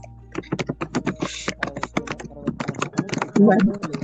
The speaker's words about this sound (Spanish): escucha, se escucha muy mal. ¿Quién es el del ruido? ¿Y por qué alguien está tecleando? alguien está escribiendo, sí.